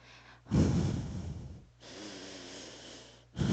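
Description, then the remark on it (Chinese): Three heavy, noisy breaths with no talking, a demonstration of the loud 'wind' (风相) type of breathing: a loud, rough inhale-exhale burst, a longer softer rasping breath, then another loud breath starting at the end. “还有一种呢， 就是他呼吸很大声，”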